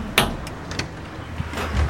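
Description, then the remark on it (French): A glass front door of a home is opened: a sharp click of the latch, then a few softer knocks and rattles as it swings, over a low steady background hum. “Si c'est chez moi, je sais, parce que c'est une porte en verre et que les autres portes sont pas en verre.”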